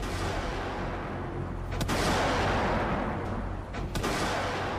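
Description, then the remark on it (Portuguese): A ship's naval guns fire warning shots in response to mortar fire from the city during a withdrawal, two sharp booming reports about two seconds apart cutting through a constant, loud roar of engine or wind noise, with no voices. “Quando inicia a retirada, a montante é alvo de disparos de morteiros vindos da cidade. Responde com tiros de intimidação.”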